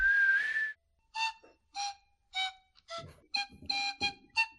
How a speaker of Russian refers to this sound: Делают трубочки из этой травы очень большой, у которой в серединке дырочки. Делают такие короткие трубочки, их склеивают вместе, соединяют, и потом в них дуют так из стороны в сторону.